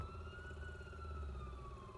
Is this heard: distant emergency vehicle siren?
yes